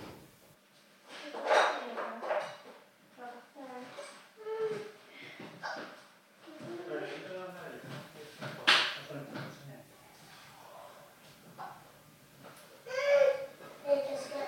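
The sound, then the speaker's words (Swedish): Children's voices chatter and babble indistinctly, muffled as if from another room, rising and falling in short bursts with occasional thumps like a drawer or door, at about 21:15 on a Friday evening. “Ska vi diskutera varför hans barn är vakna vid den här tiden på kvällen?”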